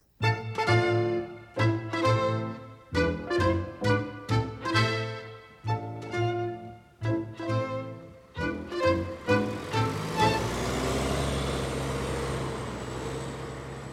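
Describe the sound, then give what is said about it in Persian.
A bus sounds a rapid series of loud, blaring horn-like blasts, then its engine settles into a steady rumbling roar with a thin high whine. “اتوبوس”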